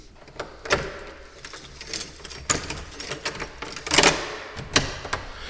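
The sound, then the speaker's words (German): Metallic clicks and rattles of an old key working in an old castle lock, followed by scraping and a heavier knock as a high door is pushed open, with no talking. “Ja, überall natürlich wunderbare alte Schlösser und Schlüssel und hohe Türen.”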